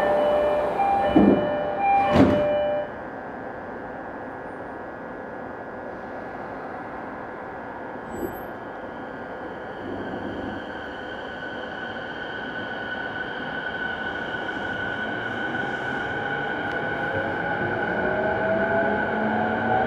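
A Tokyo Waterfront Area Rapid Transit (Rinkai Line) 70-000 series electric train pulls away from platform 2 on the run from Shin-Kiba toward Tokyo Teleport, with a couple of sharp clunks at first, then a steady rumble and a motor whine that climbs slowly in pitch as it gathers speed. No one speaks.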